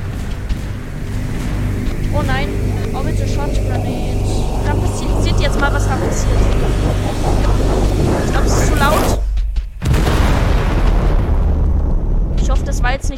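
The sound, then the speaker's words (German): Loud, nonstop video game gunfire and explosions, a dense barrage of booming blasts over a heavy low rumble, cutting out briefly near the end before the roar of combat resumes. “Oh Mist, da wird geballert.”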